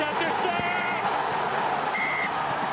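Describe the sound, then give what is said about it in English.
Referee Ben Whitehouse blows the final whistle of a rugby match: one short, steady, high-pitched blast, rising above the loud, continuous roar of a crowd. “Sam Davies a atoning for that earlier missed penalty goal, and immediately Ben Whitehouse blows the final whistle.”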